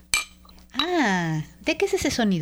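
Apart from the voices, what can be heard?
glasses clinking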